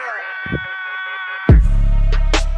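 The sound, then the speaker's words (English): New intro music plays loudly: a held, buzzy synth chord with a brief vocal-like blip, then a heavy bass hit drops in and a fuller, booming beat carries on. “should I give them a sneak peek of what the new intro's gonna be like, man?”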